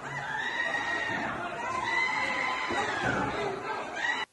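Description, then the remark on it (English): A crowd of people shrieks and yells in excitement at seeing a man, high-pitched and loud, with overlapping screams rising and falling for several seconds before cutting off abruptly. “Those people are screaming in excitement at seeing him because he's so the one.”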